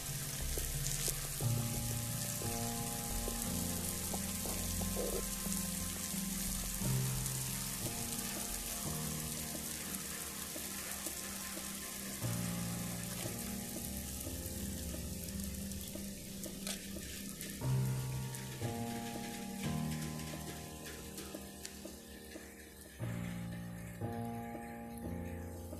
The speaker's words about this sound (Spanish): esperen amigos, es que... Ah, Sí, aquí, está lloviendo, espérenme.